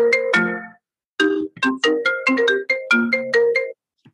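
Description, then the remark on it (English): A phone ringtone plays a bright, bouncy melody of quick electronic notes, a short phrase, a brief pause, then a longer run of rhythmic tones, loud with no talking. “My phone's tapped my uh, computer.”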